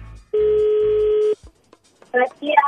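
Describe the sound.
A telephone tone sounds once as a phone call is placed, a loud, steady, mid-pitched buzz lasting about a second, followed by a short pause and then a voice starting to speak.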